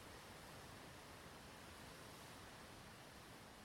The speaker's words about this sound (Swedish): Vitt brus.